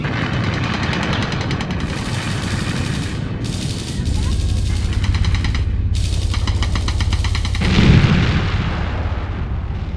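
A loud, chaotic battle scene of men fighting and killing each other: rapid bursts of gunfire rattle almost continuously over a heavy, rumbling artillery roar, with a deeper booming blast swelling near the end.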